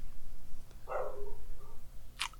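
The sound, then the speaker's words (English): A single muffled dog bark from a pet dog in another room, where it is watching the Olympics, followed a moment later by a short sharp click against a low background hum. “I have a dog. That's my dog.”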